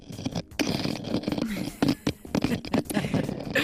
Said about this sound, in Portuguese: é o som de um microfone contra as rochas, a bater nas rochas